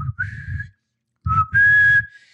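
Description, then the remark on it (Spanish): A person whistles an imitation of the pan-pipe call of a sharpener of knives and scissors: two short rising phrases separated by a brief pause, the second held longer and louder. “así como está el amolador, que, era este tipo que afila los cuchillos y las tijeras y sonaba como una especie de instrumento que era como un turú, una vaina así.”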